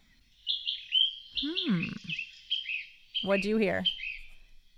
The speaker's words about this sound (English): I heard a bird. Let's draw that.